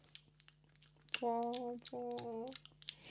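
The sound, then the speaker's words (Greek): A mouth imitates noisy lapping and smacking, with quick wet clicks scattered throughout and two drawn-out voiced sounds in the middle. “Είναι λες και ακούω το σκυλί να πίνει νερό.”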